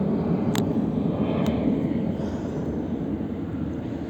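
A steady, broad roar of an airplane passing overhead fills the whole stretch, loud and constant with a low rumbling core, plus two brief faint high clicks early on.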